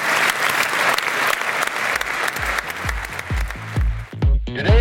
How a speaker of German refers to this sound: Vielleicht geben Sie alle nochmal einen extra Applaus, auch für sich selber, dass Sie so tapfer durchgehalten haben und so viele Inhalte aufgenommen haben.